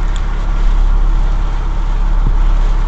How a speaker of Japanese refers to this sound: ちょっとしばらくここで寝ようと思うんですけども風で車が揺れて 寝るに寝ないという状況です